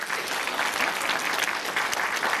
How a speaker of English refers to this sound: Hey, give her a round of applause. That's great.